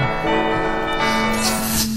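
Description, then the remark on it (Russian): Bells ring out in a dense, sustained wash of overlapping metallic tones, loud and steady for about two seconds with no voices. “Колокола помогают.”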